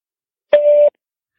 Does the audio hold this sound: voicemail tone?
yes